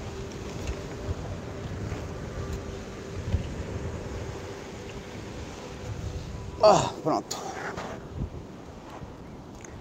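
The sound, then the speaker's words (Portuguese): Steady wash of sea waves and wind fills a beach scene, a constant broad rumble throughout, while a voice speaks briefly over it near the end. “que não vai demorar muito porque o mar vai pegar o guarda-sol ali.”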